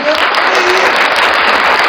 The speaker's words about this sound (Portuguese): Primeira vez depois que eu saí da prefeitura que eu levo aplauso. chuva de aplauso, chuva de aplauso, chuva de aplauso.